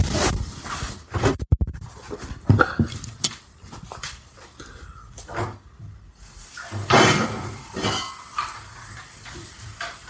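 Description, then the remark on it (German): Handling noises as a glass is fetched for beer: a glass being taken out and set down, with scattered sharp clinks and knocks, rustling and a cupboard-like thud, with no one talking. “Und dann, dann hole ich mal kurz ein Glas.”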